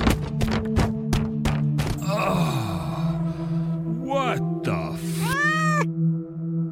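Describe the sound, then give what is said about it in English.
A burst of sharp thumps and clatter as someone trips over a cat named Fish Sticks and falls down a flight of stairs gives way to the cat yowling, several drawn-out, bending cries rising and falling over a steady low hum. “I tried to close my eyes and walk forward while talking about Italian cars, but my cat, Fish Sticks, ran under my feet and I ended up tripping over him and falling down the flight of stairs.”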